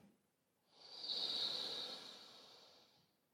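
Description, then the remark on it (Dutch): A single slow, steady inhale through the nose during a breathing exercise, a soft airy hiss that swells for about two seconds and then tapers off. Quiet, with no talking. “We ademen in door de neus kunnen de ogen rustig sluiten.”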